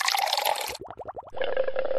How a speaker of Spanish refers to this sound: ¿Pensaste en burbujas?